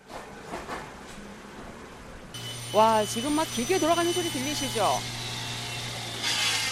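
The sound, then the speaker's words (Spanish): A steady low mechanical drone starts up partway through from workshop machines in a narrow alley of Ulchiro where precision machinery and metal goods are made, with whining, shifting tones rising and falling over it and a busy background clatter of hammers and saws. “Siguiendo esas indicaciones, nos adentramos por una callejuela en la que suenan ruidos de máquinas, martillos y sierras.”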